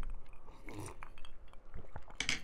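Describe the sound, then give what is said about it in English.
Glasses clink together in a toast, several bright chinks in quick succession with a final louder clink near the end, set against quiet. “Let's cheers again because that's it's not going to be good.”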